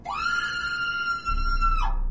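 A woman lets out one long, shrill scream of terror, held at a steady pitch before breaking off, loud and close, with a low rumble underneath toward the end.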